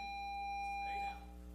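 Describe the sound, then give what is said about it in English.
A loud, steady electric school bell or buzzer drones continuously, a harsh sustained tone signaling that school is out, with faint voices stirring briefly underneath before it eases slightly. “Took me a minute to figure out if that was the fire alarm or if that was something else that was about to happen.”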